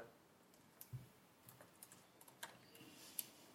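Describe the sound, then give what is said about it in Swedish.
Soft, muted typing on a keyboard with silent mechanical switches, a steady scatter of quiet, dampened keystrokes, faint, with no talking over it. “Men jag kände att det var kul att prova de som var faktiskt tysta och sådär.”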